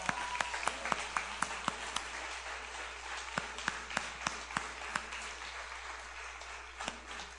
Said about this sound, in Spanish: Entonces, la verdad, ustedes han sido lo que han hecho esto posible. Entonces, yo quiero pedir otro aplauso para todos los servidores.